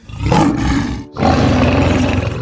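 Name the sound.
lion roaring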